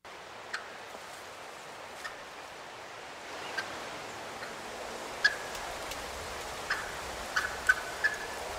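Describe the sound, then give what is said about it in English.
Short, high squeaky clucks of a wild turkey hen pop up sporadically, about a dozen scattered across the stretch, some clustered in quick pairs, over a steady outdoor hiss. No one speaks. “Um, this this turkey's clucks are more like squeaks.”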